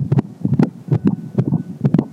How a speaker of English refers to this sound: And it all started with a simple heartbeat.